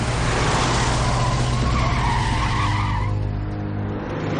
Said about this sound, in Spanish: Isaac detiene el coche frente a un café.